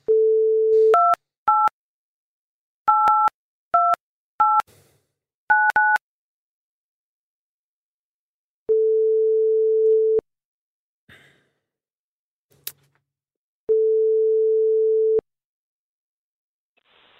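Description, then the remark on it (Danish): A steady tone at first, then a quick run of two-tone touch-tone dialing beeps, followed by long, evenly spaced ringback tones with silence between them and no talking, as a phone call is placed to a guest for the Radio 4 show Folkedomstolen. “og vi ja. ringer til hende nu.”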